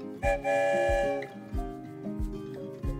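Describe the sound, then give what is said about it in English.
A distant train whistle sounds a sustained, harmonic tone, while steady low chugging pulses repeat underneath at an even rhythm. No voices are heard. “one clear night when the moon glowed with a rare blue hue, Jade heard a distant whistle.”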